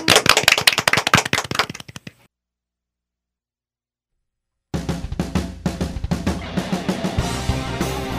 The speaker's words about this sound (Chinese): 那我们用热烈的掌声欢迎。